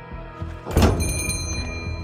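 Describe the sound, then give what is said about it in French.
Four police officers push open a restaurant door with a single solid thunk, followed by a lingering rattle and background noise as it swings. Moderately loud, with no voices. “Quatre flics ouvrent la porte.”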